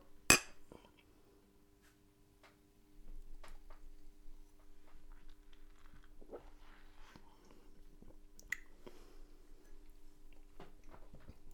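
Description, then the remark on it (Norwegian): One sharp, bright clink of glasses touching in a toast right at the start, followed by quiet clatter and small taps of glassware being handled, with no talking. The glasses hold a local white IPA beer. “Skål. Skål.”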